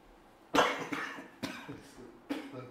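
A man's fairly loud coughing fit: several harsh, rasping coughs in an irregular series, the first the strongest, with brief gaps between them and no talking.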